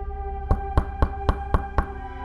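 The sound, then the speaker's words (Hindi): Six quick, evenly spaced knocks on a main gate ring out at a steady rhythm over a constant low humming drone, with no one speaking. “तभी किसी ने मेन गेट पर दस्तक दी”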